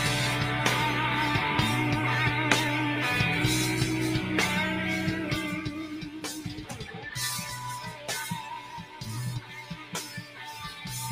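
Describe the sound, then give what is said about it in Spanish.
Loud, dense rock music with heavy bass and driving drums, a double kick bass drum pounding in quick repeated strikes beneath distorted guitars, playing steadily throughout with no voices. “tiene lo se llama el double, double kick. ¿Han escuchado?”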